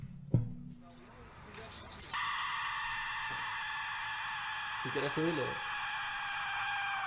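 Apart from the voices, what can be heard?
aztec death whistle shrieking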